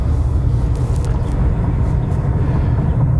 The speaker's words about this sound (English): I've got the windows cracked open a little bit here on this beautiful 80 degree day in Metro Detroit. Uh, so what you're hearing is just uh, natural natural wind coming through the vehicle.